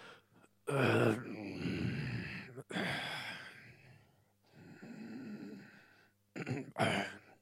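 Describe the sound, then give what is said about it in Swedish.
Slow, deliberate breaths drawn in and let out, several in a row with brief pauses between, some ending in soft sigh-like exhales, as a person breathes carefully while someone listens to their heart. No talking. “Andas för... lite försiktigt så ska jag lyssna på ditt hjärta här.”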